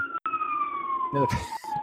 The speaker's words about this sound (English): yes more sirens from my end yeah yeah you gotta love hearing beside a fire hall